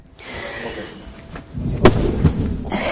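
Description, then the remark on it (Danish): Two dull thuds of feet landing after jumps down from high things, practising landings for a water-ski jump ramp. The first comes around the middle and a slightly softer one shortly after, over steady background noise with no talking. “I dag har jeg hoppet ned fra høje ting for at øve mine øh, landinger, på, når jeg skal til over hoprampen.”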